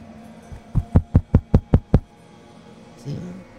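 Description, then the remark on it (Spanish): A quick, even run of about seven sharp, fairly loud knocks, acted out to imitate knocking on a bakery door, followed by silence and a faint murmur near the end. “Y tocar.”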